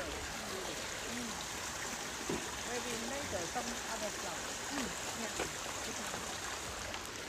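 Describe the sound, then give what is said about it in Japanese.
A river in Sueyoshi Park in Naha, Okinawa, by the Hanami Bridge, runs steadily with a broad, continuous rushing wash, moderately loud, while faint voices murmur underneath in the background. “ちょっとね川の音も聞こえますかね”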